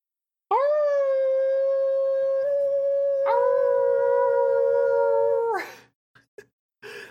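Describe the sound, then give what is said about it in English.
A long, sustained howl from an anime series rises and holds steady for about five seconds, loud, with a brief shift in pitch midway, then fades out followed by a few short clicks. “There's lots of good howling in this show.”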